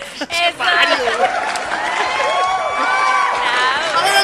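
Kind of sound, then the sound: crowd, applause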